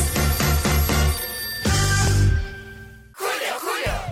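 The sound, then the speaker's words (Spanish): A telephone rings loudly in a quick series of trilling bursts, then one longer sustained ring, followed by a short noisy whoosh at the end. “Agarre su teléfono, marque y comenzamos.”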